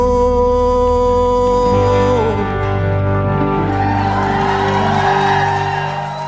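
A live concert audience cheers and whoops over a sustained, ringing final chord, the crowd noise swelling loudly and continuing as the music holds.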